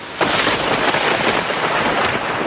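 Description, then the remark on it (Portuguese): Heavy rain pours steadily with a dense, hissing roar, and low thunder rumbles underneath throughout. The storm sounds loud, with no voices. “Tá chovendo aí?”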